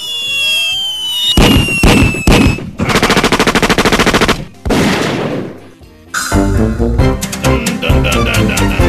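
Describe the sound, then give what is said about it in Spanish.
Loud gunshot sound effects: a few single shots, then long rapid bursts of automatic fire, with whistling ricochet-like sweeps at the start. No one talks. “mándame un saludo para la gente de Satebó, Chihuahua. Con balazos.”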